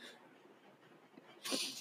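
A small dog lets out one short, sharp bark or growl near the end, fairly faint against a quiet background with soft breathing-like noise before it.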